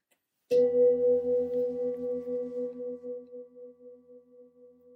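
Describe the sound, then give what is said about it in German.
A single meditation gong, the third gong of a guided meditation, is struck once, ringing out loud with a steady mid-pitched tone that slowly fades with a gentle wavering pulse over several seconds; no voices. “Und beim dritten Gong reck und strecke ich mich liebevoll und öffne meine Augenlider.”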